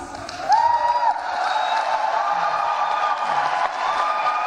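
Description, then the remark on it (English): A large crowd at a speech cheers loudly in a 30-second applause break that interrupts the speaker mid-sentence, with whoops and sustained applause filling the space, a few high voices rising above the steady roar of clapping. “and so what happened is this is a 30 second applause break, right?”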